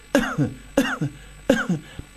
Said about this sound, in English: and we do this pressing effect and we, we cough